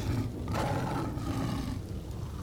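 lion roaring

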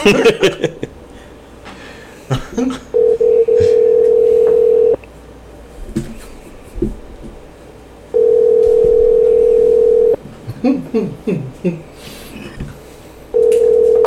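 phone call ringing

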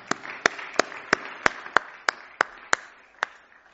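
audience clapping

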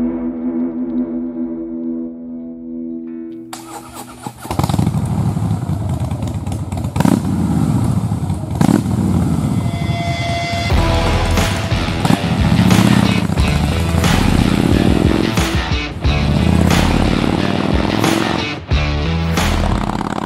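motorcycle engine running

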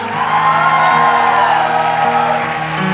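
audience shouting and cheering

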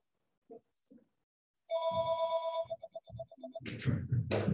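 telephone ringing

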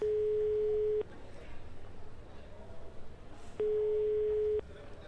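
telephone call ringing tone

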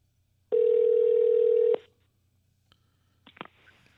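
phone call ringing tone

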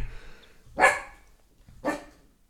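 dog barking

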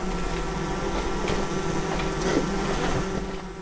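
honeybees buzzing

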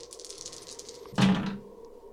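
dice being rolled

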